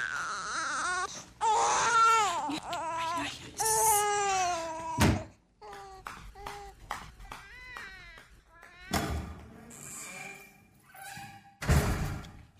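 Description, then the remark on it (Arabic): A baby girl wails in repeated strained bursts with short gasping pauses, loud, a few dull thumps breaking in partway through. “الطفلة طالعة مش روانة نخاف نخليها بعديك تقلبها بالزوا وانا ما نحبش نتعبها مسكينة صرتها خرجت من بكاء”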